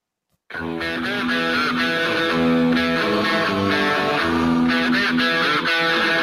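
Loud hard rock kicks in abruptly after a brief silence, a gritty distorted electric guitar riff driving over a full band at steady volume with no vocals.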